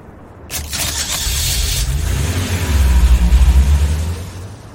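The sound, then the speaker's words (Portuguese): A car engine starts loud, with a harsh burst of noise, then revs in a deep rising rumble that swells and gradually fades as a man who got into the car drives away. “Olha lá, meu doido, tá, ele entrou no carro.”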